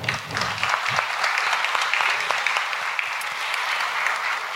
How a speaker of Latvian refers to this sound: Tāpēc milzīgi aplausi organizatoriem!